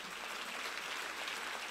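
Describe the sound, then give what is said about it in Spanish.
An audience applauding, many hands clapping together in a dense, steady crackle that holds an even level throughout, with no voices standing out. “Si usted quiere aplaude, si no, no.”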